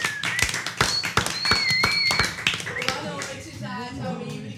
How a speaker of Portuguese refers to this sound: Vamos aplaudir! Vamos, Vamos aplaudir!